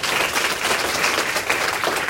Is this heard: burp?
no